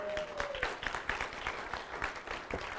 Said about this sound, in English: You should be clapping for her because she's got this thing.